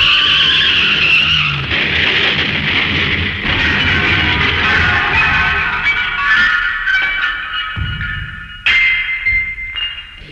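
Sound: runaway garbage truck skidding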